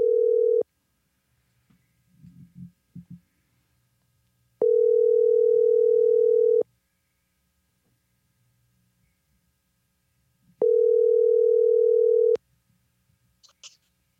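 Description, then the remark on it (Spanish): A phone ringback tone sounds three times, each a steady two-second beep separated by long pauses, with faint handling noises in the gaps and no one speaking. “voy a llamarlo.”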